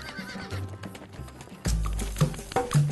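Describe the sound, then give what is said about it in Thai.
An old horse's hooves clip-clop in a quick running rhythm as it is made to run, faint at first and then suddenly loud partway through, with a whinny mixed into the clatter. “นั่นมันม้าแก่นี่พวกเจ้าจงเอาม้าแก่ตัวนั้น มาวิ่งให้เราดูสิพระเจ้าข้าข้าแก่ขนาดนี้ จะเอาแรงที่ไหนมาวิ่ง เจ้าพระราชานี่ช่างใจร้ายนัก เอาวิ่งเลยวิ่งเลย เร็วๆเข้าสิ วิ่งให้ว่องเลย”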